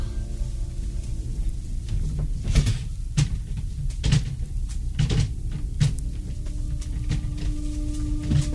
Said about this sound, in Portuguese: Regina ergueu a cabeça devagar e, paralisada pelo terror, percebeu o que estava acontecendo. Alguém estava forçando a janela de seu quarto.